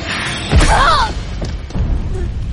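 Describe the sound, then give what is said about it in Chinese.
A single dull, heavy thump of a small, finely made puppet with specially made hands striking Maolocke's head from behind, with a brief swishing rush around it and a low rumbling tail that fades out. No one speaks. “小人偶的手部用特制的接触制成，飞快的跳到了猫洛克背后，砸向猫洛克的头。”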